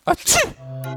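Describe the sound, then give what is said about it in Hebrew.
A single loud sneeze: a quick voiced intake followed by a sharp, hissy burst that trails off, then a steady sustained musical tone begins. “לבריאות שיהיה לך אמן כן יהי רצון.”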